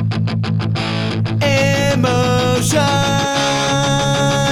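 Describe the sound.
A loud, fast punk rock song plays, with heavily distorted electric guitars, pounding drums and a sung vocal line over the dense, driving wall of sound.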